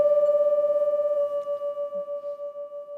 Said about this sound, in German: Wenn die anfängt zu rasseln und hüpfen, weiß er, dass er den richtigen Ton getroffen hat, der das Glas zum Wackeln und Schwingen bringt. Es wird ordentlich laut, aber es reicht noch nicht.